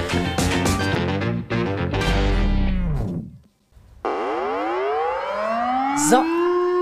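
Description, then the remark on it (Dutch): A short electronic jingle: a quick burst of punchy, rhythmic synth notes, a brief pause, then a loud rising siren-like synth sweep that glides upward and holds, with no one talking. “Dat is wederom de jingle.”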